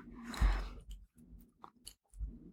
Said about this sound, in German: Mein Magen knurrt jetzt im Hintergrund, keine Sorge, alles gut, hier ist kein Ungeheuer im Raum. Ich weiß nicht, ob man das hört.